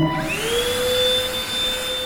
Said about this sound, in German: Puccini ist ein kleiner Roboter, eine elektronische Reinigungsfachkraft auf Rädern mit Lappen, Bürsten und einem eingebauten Staubsauger